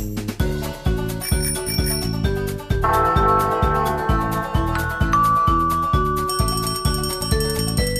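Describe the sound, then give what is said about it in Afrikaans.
A bicycle bell rings brightly over a bouncy, steady-beat music track, its high metallic tones standing out near the start and again toward the end. “klokkie sê tring tring tring”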